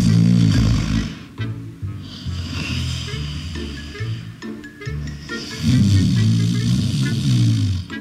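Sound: man snoring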